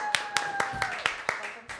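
Applause for someone arriving: about seven sharp, evenly spaced handclaps in a brisk steady rhythm, sounding like a small group rather than a big crowd, over a faint sustained tone and murmur.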